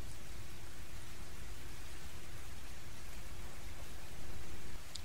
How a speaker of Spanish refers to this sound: Las risas de los tres no se hicieron de rogar, y después un silencio que solo la lluvia rompía.